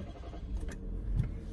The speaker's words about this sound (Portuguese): e o carro está ligado.